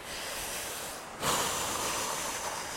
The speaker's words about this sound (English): Otherwise, it would be all mouth breathing like this.